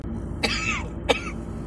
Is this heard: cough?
yes